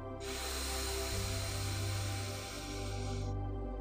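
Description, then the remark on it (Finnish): A long, steady breath drawn in through the nose during a guided breathing exercise lasts about three seconds, a soft airy hiss over a low background hum, with no talking. “Sieraimista sisään ja suusta ulos. Sisään.”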